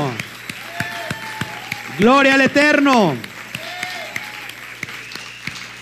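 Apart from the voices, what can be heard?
audience applause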